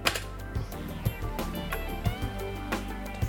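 Several sharp, clacky presses of a keyboard space bar, selecting a driver update option on a computer, land at uneven intervals over a steady low hum with faint tonal murmuring in the background.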